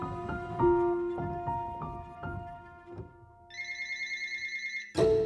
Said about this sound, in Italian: Ancora una volta, il telefono squilla nel cuore della notte.